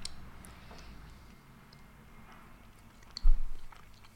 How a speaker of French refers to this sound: Allez, on attaque. Ah, moi, je mange la croûte, hein, ça me plaît. Ah bah moi aussi, j'adore ça, la croûte. La croûte, c'est ce que je préfère.